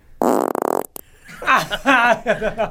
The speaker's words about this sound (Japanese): で、おならの音が、えー、3パターン選べるよと。はい。はい。えー、普通の音、えー、そして、えー、高音。えー、そして、えー、3番、はぎれっていう名前ですけど、はぎれの悪いやつ。